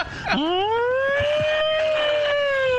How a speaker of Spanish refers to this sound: La alarma, ¿eh? ¿No? Salte las alarmas, ¿eh?